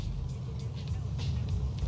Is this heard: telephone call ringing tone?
no